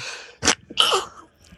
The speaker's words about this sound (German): Gesundheit. Danke.